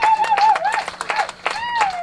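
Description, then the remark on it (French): An audience bursts into dense, steady applause for the guest Mehdi Cayenne, many hands clapping close together, with a few voices whooping and cheering over the clapping throughout. “Une grosse main d'applaudissement pour notre invité très généreux, Mehdi Cayenne, mesdames et messieurs.”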